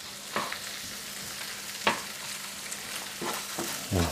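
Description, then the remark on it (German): Button mushrooms (champignons) sizzle in a hot pan with a steady crackling hiss, broken by several sharp scraping clicks as a utensil stirs them, the loudest near the start, middle and end. No one speaks. “Schütten wir da noch ein bisschen auf und geben die Champignons ein bisschen Gas.”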